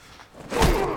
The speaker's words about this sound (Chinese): 这一拳多少带点私人恩怨。